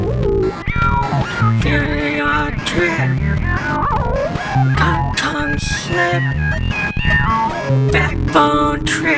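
A cat meows over and over, loud and close, its drawn-out, wavering cries overlapping almost continuously with no pauses and no one talking.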